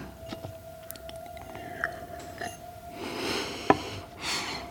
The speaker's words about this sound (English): Have another sip of water.